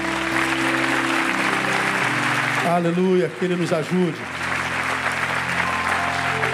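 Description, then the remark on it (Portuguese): An audience claps loudly in a steady, dense burst of applause for God that fills the whole clip, while a man speaks briefly over it and a sustained organ-like tone hums underneath. “Um aplauso dele bem forte.”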